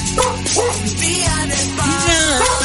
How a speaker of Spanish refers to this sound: Ay, el perro, ya.